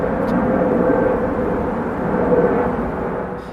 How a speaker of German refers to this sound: Mittlerweile sind es auch insgesamt drei Flugzeuge gewesen, die gestartet sind, während ich hier beim Planespotter-Punkt äh, bin. Das macht ungefähr ein Flugzeug alle sieben, acht Minuten.